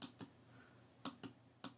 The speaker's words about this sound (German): Ich versuche jetzt gerade auf alle möglichen Sachen zu klicken mit, mit, mit der mittleren Maustaste